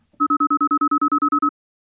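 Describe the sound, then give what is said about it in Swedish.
An outgoing phone call's ringing tone: a quick burst of about a dozen short, evenly spaced electronic beeps, loud and clear, with no voices. “ringde upp honom.”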